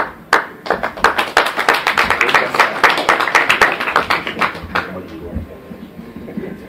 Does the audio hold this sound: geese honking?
no